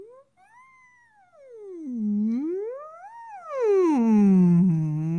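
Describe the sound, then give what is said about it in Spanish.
A single voice hums a slow, gliding tone that dips and rises. It sounds muffled at first while placed backward from a fixed microphone, then abruptly louder and clearer for the last second or so as the microphone picks up the sound directly. “Lo interesante es que el micrófono, en este caso no miente, si yo hubiera colocado en diferentes puntos hacia atrás, el sonido suena, suena como que se traga el sonido, como que se va.”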